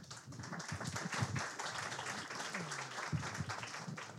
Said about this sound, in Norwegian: Gi han en varm applaus.